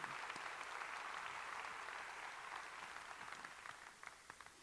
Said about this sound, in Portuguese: Quem pode dar um grande aplauso ao Senhor Jesus? Aleluia.